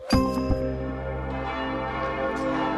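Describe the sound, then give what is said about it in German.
Church bells in Halle ring out at one minute past twelve with a strong opening strike and a second stroke, their rich, sustained overtones humming and ringing on without pause. No voices are heard. “Da wurden nämlich Kirchenglocken geläutet und das öffentliche Leben, das stand da kurz still.”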